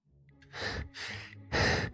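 Three heavy, breathy pants in quick succession, loud and airy with a rough, exhausted edge, from a person with hands braced on their knees, gasping for air after running through several turns. No talking.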